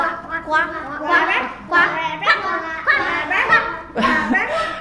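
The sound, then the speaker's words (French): Several children's voices make repeated short, rhythmic croaking noises, imitating frogs, fairly loud, with bits of giggling mixed in among the bursts. “Et vous aviez fait aussi le bruit des grenouilles. Comment vous faisiez”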